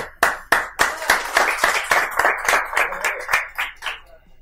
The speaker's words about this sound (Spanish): Vale, un aplauso.